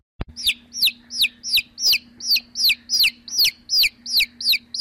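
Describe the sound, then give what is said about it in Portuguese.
A baby chick cheeps a dozen times in a steady, quick rhythm, each high peep sliding downward, clear over a faint low hum. “Barulho de pinto.”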